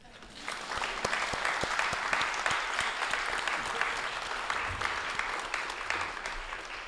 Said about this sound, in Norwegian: Yay! Og gi dem en applaus.